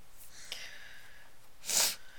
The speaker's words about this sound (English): Um, I thought I was gonna sneeze and then I didn't.